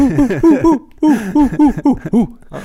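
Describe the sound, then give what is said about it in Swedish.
A person imitates a dog with a quick string of high, yelping barks, about four, a brief pause, then six more in a steady rhythm, fairly loud. “Någon hund eh, lät det, det var kanske inte perfekt men... Typ så.”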